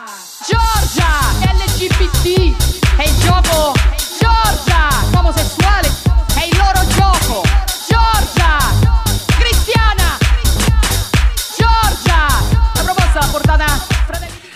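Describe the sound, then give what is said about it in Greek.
A loud, pounding dance club remix played in clubs in Italy over the last six months, with a steady four-on-the-floor kick, dense bass and chopped vocal-like melodic fragments repeating throughout, playing continuously without talk over it. “αυτό που ακούτε είναι ένα remix που παίζει το τελευταίο εξάμεινο στα κλαμπ στην Ιταλία διότι η κυρία, ακόμα και αν θέλεις κοροϊδευτικά, ναι προφανώς αυτοί που το έχουν φτιάξει έχουν επικεντρώσει στο ότι είναι ε, μάντρε, κριστιανά”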